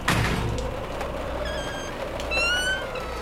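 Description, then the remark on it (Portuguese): A dull thud at the start as an open door bangs against the wall in the wind, then the door creaking twice with high, wavering squeals, all over a steady low rumble of wind. “Ela tá, tá, tá batendo contra a parede por causa do vento.”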